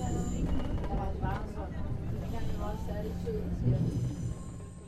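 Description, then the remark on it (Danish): A steady, low rumbling drone fills the space inside a moving train carriage on the way home, with faint murmuring voices in the background throughout. “På vej hjem i toget tænker jeg på alt det, jeg har hørt.”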